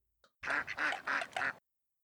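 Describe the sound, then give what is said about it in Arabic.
Four quick, nasal quacks from ducklings in a tight burst, loud, with no other sound around them and a tiny peep just before. “حاول أن يلعب مع فراخ البط ولكنهم نفخوا الماء عليه قالوا”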